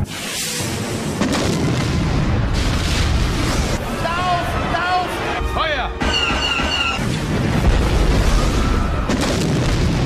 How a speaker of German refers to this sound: Planetare Ziele anvisiert. Feuer! Sir, Sie eröffnen das Feuer auf uns! Raus hier! Bringt euch in Sicherheit!